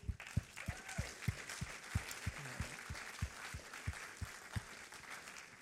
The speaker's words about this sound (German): Wow, lass uns Gott einen riesen Applaus geben.